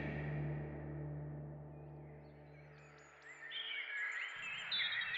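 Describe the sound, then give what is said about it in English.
A low hum fades away as bright, chirping bird calls of wildlife rise and fill the air, several birds tweeting and trilling in an otherwise quiet outdoor morning. “The next morning, residents were not awakened with the normal clanging sounds of the unit bells, but once again by the sounds of wildlife.”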